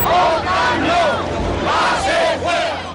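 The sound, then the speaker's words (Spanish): A large crowd of Spaniards shouts and chants together in the streets of Spain around the NATO referendum, with loud, overlapping voices rising and falling in waves across a continuous roar of noise. “Poco después suscribía su permanencia en la OTAN tras un polémico referéndum en el que los españoles, que habían gritado en las calles”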